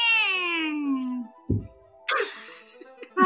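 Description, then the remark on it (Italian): Someone playing the character Cosmo, who is turning into a cat as his magic fades, imitates a cat with one long, drawn-out meow that slides downward in pitch, fairly loud. A brief low thump and some scattered noisy sounds follow. “è che sta scemando la, la, capacità magica di Cosmo e quindi stai diventando un gatto.”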